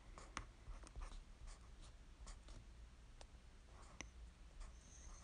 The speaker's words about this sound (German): Ja, ich schreibe da jetzt mit irgendeinem Stift, ähm, den man gut sieht.